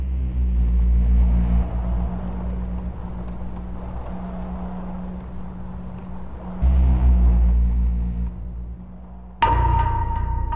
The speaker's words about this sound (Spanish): Con el eco de un tren comenzamos nuestro particular viaje.